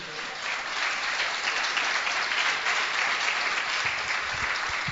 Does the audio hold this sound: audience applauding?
yes